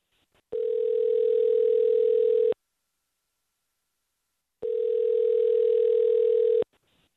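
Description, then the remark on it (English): Two long, steady electronic ringback tones, each about two seconds, separated by a silent gap, heard clearly and alone as an outgoing call rings on the line. “All right, let's get him on the phone.”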